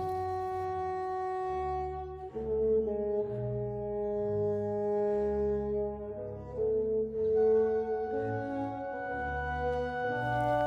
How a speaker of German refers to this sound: Das hört sich einen Halbton tiefer an. Deswegen hier als Beispiel nochmal in der alten Stimmung mit einem Barockinstrument das Vorspiel zu der Arie.